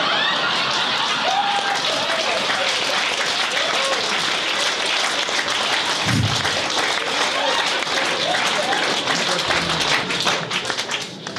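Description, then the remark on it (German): One audience member claps steadily, a dense, continuous patter of claps that stays loud and even throughout before tapering slightly at the very end. “Da klatscht er.”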